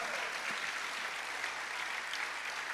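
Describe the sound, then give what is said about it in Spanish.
An audience applauding the Lord steadily, a dense, continuous wash of many hands clapping at an even loudness throughout, with no voices standing out. “Dale un fuerte aplauso al Señor, por favor.”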